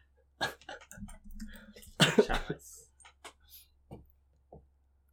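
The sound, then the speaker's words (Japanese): Several coughs, with one loud, harsh burst in the middle and smaller rough coughs and throat noises before and after, separated by short pauses. “咳をすると波形がすごいことになるから、申し訳ない気持ちになる。”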